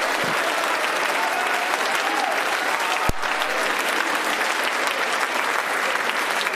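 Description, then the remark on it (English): An audience claps steadily and loudly for several seconds with a shout of joy to God, a dense, even wash of applause with scattered voices calling out and one sharp thump partway through. “Why don't you clap your hands with all of your might and give God a great shout of joy?”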